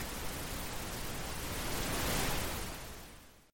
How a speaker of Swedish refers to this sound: Bruset ökar igen och nu hör jag dem inte mer.